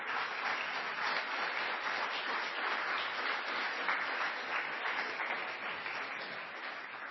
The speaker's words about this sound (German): Naja, das war ein bisschen verhaltener Applaus, gewesen